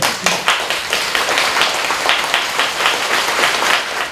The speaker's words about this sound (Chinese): 哇，这个太厉害了！这个赶快拍拍手。